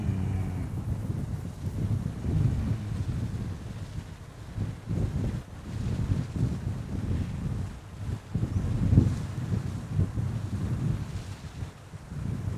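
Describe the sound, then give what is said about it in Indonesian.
Strong wind buffets the microphone during a fishing outing, a steady low rumble with gusty surges, joined by faint watery sounds and no voices. “Wih, anginnya keras.”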